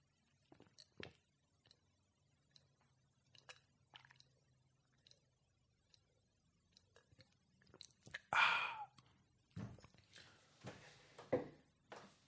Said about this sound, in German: Guckt mal, ich trinke das ganze Glas. Hört mal her, hört mal her, wie super das klingt.